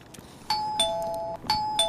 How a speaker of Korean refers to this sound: 아, 현관 벨소리군요. 택배 왔나요? 자, 이 소리 잘 기억해 두세요. 오늘 보물소리니까요.